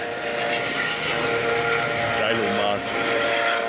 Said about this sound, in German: Ey, die Hubschrauber kommen, die Hubschrauber kommen! Die Adler kommen, die Adler kommen! Handelt der jetzt? Der muss doch landen hier, oder? Auf dem Dach?